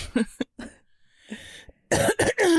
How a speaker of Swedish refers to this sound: Äh, jag måste hosta och jag klarar inte riktigt hosta för att då får jag svinont i nacken.